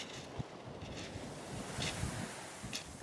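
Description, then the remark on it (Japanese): Sea waves wash over a stony (not sandy) beach where the speaker lives, a broad steady rush with scattered clicks and rattles of stones and soft low thumps, with some wind buffeting the microphone. “この私の住んでる地域は海が砂浜じゃなくて石ころなんですよねこの石ころの音すごい好きなんですよね。”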